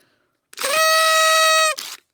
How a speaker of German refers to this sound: wir haben noch darüber diskutiert, basisdemokratisch, ob wir jetzt Konfetti äh, irgendwie hier ähm, ausbreiten oder irgendwie sonst es feiern, aber ich möchte zumindest in diese Tröte äh, pusten, um meiner Freude Ausdruck zu verleihen.